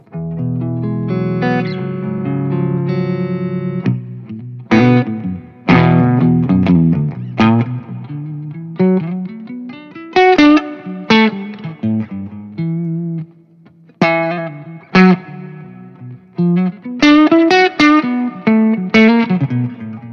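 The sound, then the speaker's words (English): An electric guitar in an alternate tuning, with the G string tuned to C and the E string to A, plays loudly through a 100 watt amplifier, mixing sustained ringing chords with sharp, rhythmic strummed bursts and short pauses, with a distorted, effects-laden tone and no talking. “oh, it's such a joy to sit beside a 100 watt amplifier with someone that can play the, as good as you.”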